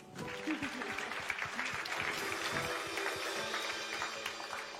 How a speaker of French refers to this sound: Vous pouvez l'applaudir.